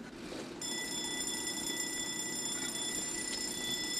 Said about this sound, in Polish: W drodze do rozgłośni zatrzymaliśmy się przy zajezdni tuż przy ulicy Powstańców Śląskich. No oczywiście, słyszą Państwo, tramwaje wyjeżdżają zaczyna się normalny wrocławski dzień.